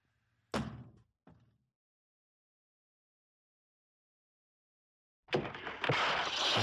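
Someone kicks open the door of a bedroom in an apartment: a sharp, heavy impact bursts out, followed by a second smaller thud as the door is forced open; after a pause, a loud, sustained rush of noise and commotion fills the space.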